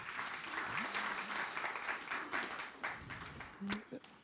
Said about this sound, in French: On peut l'applaudir.